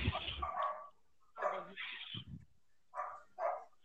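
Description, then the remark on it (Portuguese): A dog named Amora barks several times in short, uneven bursts: a longer opening bark, a couple more after a pause, then two quick sharp barks close together. Clear, with no talking. “Tá o som de teca latino”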